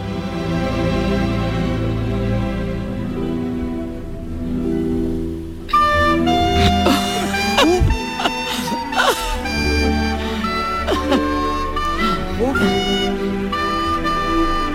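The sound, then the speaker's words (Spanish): A flute concerto with a large symphony orchestra in a very large auditorium in London: sustained orchestral chords at first, then the off-key flute line and fuller ensemble come in brighter and louder partway through, playing continuously without any talking. “Estamos en Londres, estamos escuchando un concierto para flauta y orquesta y suena así.”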